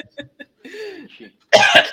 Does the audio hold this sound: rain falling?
no